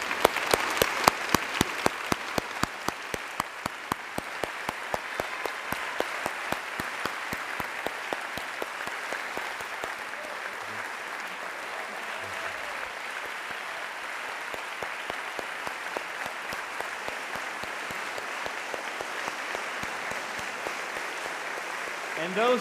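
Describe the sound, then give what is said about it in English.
A large church audience claps steadily and enthusiastically for over twenty seconds, giving thanks to the women in their lives and in the church; the dense applause is sustained and even before tapering slightly at the end. “And so, if you are able, would you stand with me and would you give thanks to the women in your life and who are part of this church as we celebrate those?”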